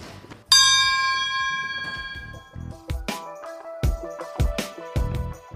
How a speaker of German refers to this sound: Was wir haben, ist eine Deal-Glocke. Das heißt, wenn wir äh, hier einen Happy Deal abschließen oder wenn wir jetzt von einem Laden eine Schuhbestellung äh, erhalten oder wenn wir einfach an einem Tag viele Produkte verkaufen